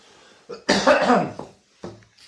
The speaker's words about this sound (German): Eine Sekunde, ich muss mal kurz husten.